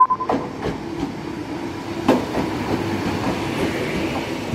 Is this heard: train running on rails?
yes